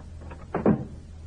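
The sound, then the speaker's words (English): A back door opens and shuts, two quick wooden clunks in close succession over a low steady background hum, with no voices. “Use this back door.”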